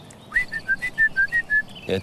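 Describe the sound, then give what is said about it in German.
A Eurasian blackcap's clear, whistled song of about eight quick, bright notes in a row, fairly loud, ending with a brief low murmur of a voice. “Das ist die Mönchsgrasmücke. Die hat so einen ganz klaren Pfeifton.”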